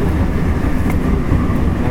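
A JR 225 series Special Rapid Service (Shin-kaisoku) electric train, running from Ashiya to Osaka, runs steadily, a loud, continuous low rumble and roar with faint higher whine. No one speaks.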